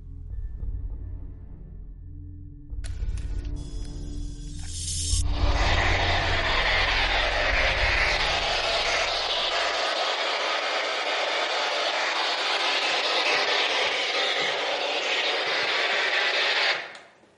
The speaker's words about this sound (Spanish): El SB11 tiene una característica que lo diferencia del SB7. Su antena está anulada, no hay capacidad de recepción y además el barrido de frecuencia para la generación de ese ruido blanco lo hace en dos bandas, AM y FM.